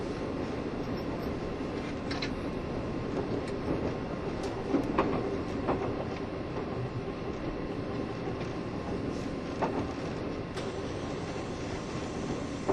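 A Taiwan Railway EMU1200 electric Tze-Chiang express train, number 122, runs along the rails between Xinying and Changhua, past Chiayi Station, with a steady, dense rumble, broken by occasional sharp clicks and faint metallic ticks. No one speaks.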